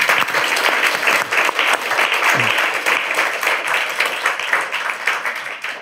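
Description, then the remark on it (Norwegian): An audience at an evening event breaks into sustained applause for the two guests, dense overlapping clapping at a steady loud level for several seconds, with a brief murmur of voices in the crowd. “Jeg syns de egentlig fortjener en god applaus.”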